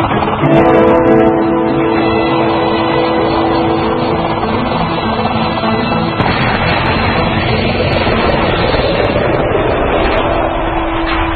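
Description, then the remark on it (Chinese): A loud, steady engine drone like a piston propeller airplane, with a low humming tone over rough roaring noise that holds throughout and grows harsher partway through. No one speaks. “宫崎骏非常喜欢飞机，而且喜欢很原始那种，就是活塞式的，就螺旋桨。”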